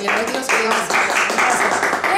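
A crowd applauds steadily for a couple of seconds, a dense wash of clapping mixed with cheering voices, loud and continuous without a break.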